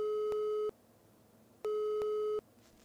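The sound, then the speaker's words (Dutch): A telephone ringing tone on the line of an old rotary-dial telephone sounds twice, each a steady electronic buzz lasting under a second with a short pause between, clear with faint line hiss in the gaps. “De telefoon gaat over”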